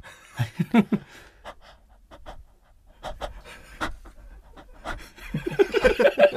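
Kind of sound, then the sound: vocal imitation, imitated panting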